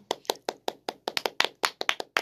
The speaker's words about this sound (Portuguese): Palmas humanas aqui no nosso próprio estúdio, sendo geradas em tempo real.